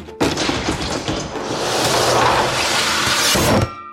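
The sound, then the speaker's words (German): A sudden loud bang as ceiling hatches fly open, followed by a heavy, rumbling crash of a falling executioner's axe blade lasting a few seconds, forceful, with no voices. “In dem Moment öffneten sich die Luken an der Decke mit einem Knall und das Beil sauste herab.”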